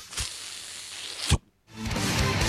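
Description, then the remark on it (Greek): A tire is pumped up with air: a steady hiss of rushing air, broken by a sharp thump and a short pause, then the airy hiss returns with a low rumble. “Ε, αυτό είναι ο ήχο του φουσκώματο.”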